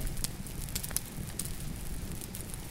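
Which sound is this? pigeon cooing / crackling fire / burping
crackling fire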